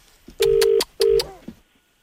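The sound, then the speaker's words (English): Two loud, steady telephone dialing tones as a call is placed to a bar, the first longer than the second, separated by a brief gap, with faint background noise and no talking. “he gets a phone call from very, very rude people.”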